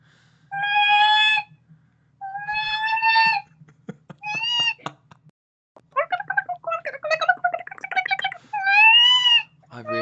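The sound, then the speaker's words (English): A person imitates a bird call with their voice: drawn-out creaky, rusty-gate squeals, then a burst of rapid clicks and a fast run of warbling chirps, fairly loud. “Um, it's like it was like a kind of weird rusty gate sound, followed by like loads of clicking and Best chirruping.”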